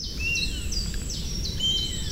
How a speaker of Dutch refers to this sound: Ofwel beeld ik het mij in, ofwel zou dat wel eens wespedief kunnen zijn. Want dus een buizerd die miauwt, en eigenlijk in het gefluit van een wespendief, dus de zomerbuizerd, heb je meer een kliauw-achtig geluid.